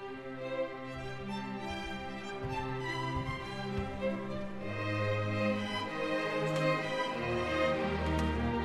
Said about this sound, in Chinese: 角色乐器配置是这样的：弦乐四重奏代表彼得，